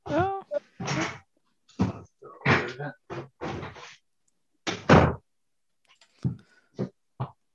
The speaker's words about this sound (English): i might just close the door